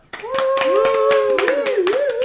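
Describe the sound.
A round of applause from a small group, brisk overlapping hand claps throughout, with a sustained cheering or whooping voice rising over the clapping, close and fairly loud.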